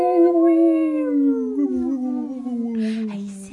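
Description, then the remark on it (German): A voice imitates a UFO sound: one long, smooth humming wail with rich harmonics, steady and fairly loud, sliding slowly downward in pitch over a few seconds, with a faint breathy hiss at the end. “dann äh, macht's doch wie wir und schaut einfach zum Sternenhimmel und beobachtet ein paar unbekannte Flugobjekte, die vorbeiziehen und macht UFO-Geräusche dazu.”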